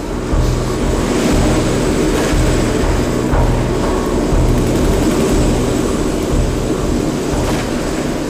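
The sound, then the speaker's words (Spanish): A helicopter roars overhead, a loud, steady engine drone with a low chopping throb that holds for the full stretch, with no voices. “esperando el momento indicado para atacar el helicóptero con una de sus lanzas.”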